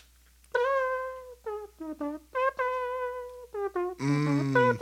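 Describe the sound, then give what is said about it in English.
A voice imitates a trumpet, buzzing a short tune of held and quick clipped notes that ends on a louder, brassier blast. No one speaks over it. “That's some great mouth Dude, trumpet. That's, that sounds like trumpet.”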